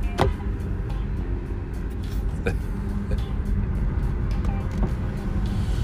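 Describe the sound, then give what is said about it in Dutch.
A Bordeaux red Renault Grand Scenic car driving along, heard from inside: a steady low engine and road rumble throughout, with a few brief sharp clicks or knocks breaking through. “Maar hij herkent mij niet aan een auto. De Bordeaux rode Renault Grand Scenic.”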